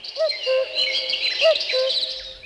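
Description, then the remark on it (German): A common cuckoo calls its two-note 'cuck-oo' twice, clear, over a busy background chorus of higher-pitched songbirds chirping and trilling. “Der Kuckuck hat allerdings ein ganz spezielles Problem, sagt Michael Schroll.”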